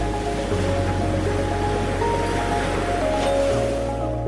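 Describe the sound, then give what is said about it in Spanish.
Ocean waves wash and crash against the edge of a cliff in a steady, continuous roar of surf with no clear breaks, over a faint low humming drone. No voices are heard. “Las olas estallan en el borde del acantilado”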